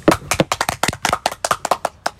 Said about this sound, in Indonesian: give applause dong guys